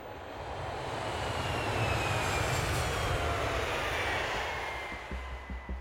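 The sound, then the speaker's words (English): A steady, loud airplane engine roar in flight, a broad continuous whoosh over a deep low rumble, holding even throughout with no voices. “I'd barely slept on the plane.”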